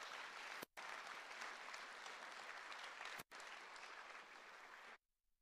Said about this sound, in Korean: 우리 기대하는 마음으로 우리 목사님 나오실 때큰 예, 박수로 예, 환영해 맞겠습니다 예, 우리 목사님 나와 주시죠.